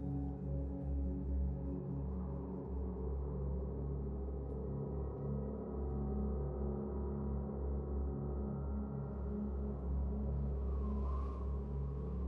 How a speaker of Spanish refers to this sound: respira con naturalidad y escucha la música.